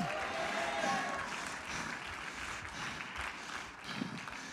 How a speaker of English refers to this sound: Come on, somebody clap your hands. You ought to say it. Somebody shout, go again.